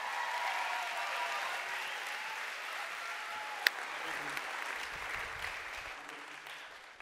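An audience applauds in a dense, steady wash of clapping that holds for several seconds, with one sharp snap midway, before thinning and fading toward the end.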